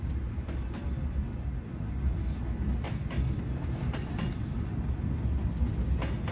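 A train rolls steadily along the rails, a continuous heavy rumble broken by irregular sharp clacks from the wheels over track joints. No voices are heard.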